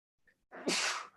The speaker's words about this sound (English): God bless you. It's okay. I have I have a tissue right here because I knew my nose would start running